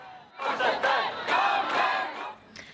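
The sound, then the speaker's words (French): A large crowd of many Norwegians gathered in a city street in solidarity shouts and chants together outdoors, swelling loudly for a couple of seconds with overlapping calls before fading to a quieter murmur. “Malgré les recommandations, de nombreux Norvégiens sont descendus dans la rue en signe de solidarité”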